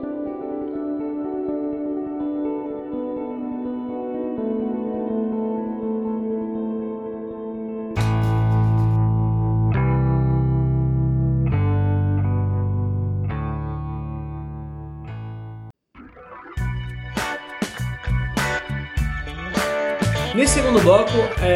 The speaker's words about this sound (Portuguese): Totalmente, com isso você tá ouvindo essa música crescendo, é a passagem de bloco, tá, gente? Daqui a pouco vem outra aí.